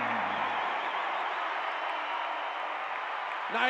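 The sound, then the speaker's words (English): A large basketball arena crowd roars and cheers, coming to its feet after Clarkson's catch-and-shoot three-pointer puts Utah up 91-88 late in the third quarter, in a steady, dense wash of noise that holds throughout, with a brief voice cutting in near the end. “Crowd comes to their feet.”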